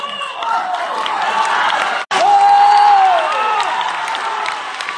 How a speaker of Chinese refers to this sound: 就是演员张火丁的时候，就就就。鼓掌声、叫好声就炸了，我都录下来了。这个声音，那我我中间会插放一些，就是现场的那个声音